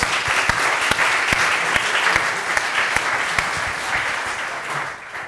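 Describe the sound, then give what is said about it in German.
An audience applauds steadily throughout, a dense wash of many hands clapping with a few sharper individual claps standing out, tapering slightly at the very end. “Schön, dass ihr da wart. Applaus”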